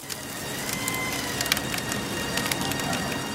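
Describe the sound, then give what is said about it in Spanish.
Firewood crackles in the large Dakar Rally bonfire, lit each night in the middle of the Arabian desert, with irregular sharp pops and snaps scattered over a steady, rushing roar of flames. No voices are heard. “De nuevo y por última vez, escuchamos el crepitar de la leña al arder en la gran hoguera del Dakar.”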